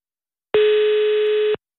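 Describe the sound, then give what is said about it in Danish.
A single telephone ringback tone on a call placed from Copenhagen sounds once for about a second, a steady, buzzy pitch that starts and stops abruptly. It is loud, with no voices. “Og oh, det er en helt speciel ringetone.”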